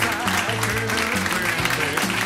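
An audience claps steadily, a dense, continuous wash of applause layered over loud music with a pulsing, stepping bass line throughout.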